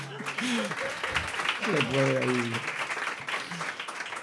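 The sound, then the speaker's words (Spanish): Steady audience applause fills the whole stretch, a dense wash of many hands clapping, while voices talk and laugh over it in the foreground. “Yo no sé por qué la gente te aplaude en realidad.”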